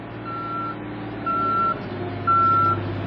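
A truck's reversing alarm sounds three evenly spaced, steady beeps over a continuous low diesel engine rumble as trucks block the street entrance at night for transport of heavy material, with no voices.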